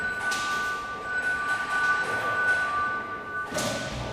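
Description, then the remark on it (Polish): An electric bell signal, given by an expert as the cue for a dog handler to enter from the airlock room into the identification room, rings steadily for about three seconds, a sustained tone over background rumble and noise, then cuts off. “To jest po takim właśnie dźwięku dzwonka ja wchodzę właśnie z pomieszczenia śluzy do pomieszczenia rozpłonowalni.”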